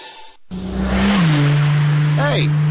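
A speeding car's engine roars, revving hard and holding a loud, steady drone as it speeds off, with a brief high squeal near the end; the car has a race car driver's number on its back window.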